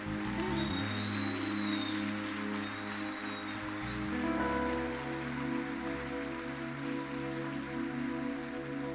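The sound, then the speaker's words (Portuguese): A church audience applauds the Lord, clapping steadily in a dense, continuous wash of applause, while sustained keyboard chords hold underneath and shift a couple of times. No one speaks. “Vamos aplaudir ao Senhor mais uma vez, igreja.”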